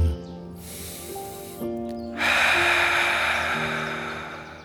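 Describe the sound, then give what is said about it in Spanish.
A slow, deep breath drawn in, followed by a long, loud, airy exhale, with soft sustained music underneath. “Escucha tu respiración.”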